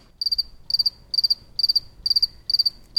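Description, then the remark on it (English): A lone cricket chirps close by at night in a steady rhythm, each chirp a quick burst of three or four high pulses, repeating about every half second over a quiet low background. “Luckily, he was nearby where I was set up, and I was able to get this pristine recording of a single solitary cricket.”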